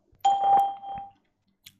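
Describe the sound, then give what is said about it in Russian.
A single electronic chime, the Skype test call tone that marks the start of recording a message of up to 10 seconds, rings clearly for about a second and fades, followed by a faint click in otherwise quiet surroundings. “После сигнала начнется запись вашего сообщения длительностью до 10 секунд.”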